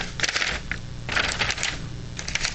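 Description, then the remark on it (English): A paper road map of the state of Georgia is unfolded, with crisp, crinkly rustles coming in several irregular bursts over a couple of seconds and no voices. “Just so you know, fellas, this is a map made of paper, and it unfolds like this.”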